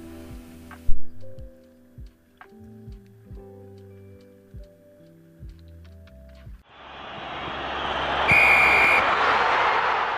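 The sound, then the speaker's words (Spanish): A single short, shrill referee's whistle blast ending a match cuts through a loud stadium crowd roar, which swells in right after a bouncy, plucked musical jingle with steady beats. “El árbitro ha pitado el fin de este encuentro.”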